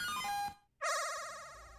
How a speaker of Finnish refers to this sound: Eli tässä kuuluu tämmönen, tämmönen korkea piippaus, myöskin pelin nimi. Ja siitä me tiedetään, että voidaan painaa sitten enteriä.